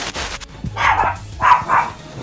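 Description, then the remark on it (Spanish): A dog barks three times in quick succession, a longer first bark followed by two sharp ones, fairly loud, with faint background noise and no one talking. “Se nos están echando los perros.”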